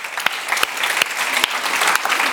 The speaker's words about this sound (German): Er macht einen guten Tisch. Er macht einen guten Tisch. Gib ihm mal einen Riesenapplaus. Applaus